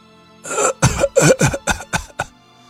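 A grandfather lying in a hospital bed has a fit of harsh, violent coughing that he tries to suppress: six or seven loud, rasping bursts in quick, uneven succession, with the last few growing weaker and more strained, and no talking.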